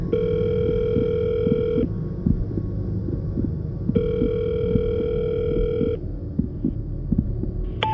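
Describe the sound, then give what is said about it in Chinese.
A phone's calling tone, as a woman phones her boyfriend, plays as two steady, buzzing beeps of about two seconds each, separated by a pause, over a constant low rumbling, thumping background. “有一天，女生的肚子吃坏了，匆忙的跑去厕所，发现厕所没有手纸，然后自己也忘记带了，就打电话让男生送过来。”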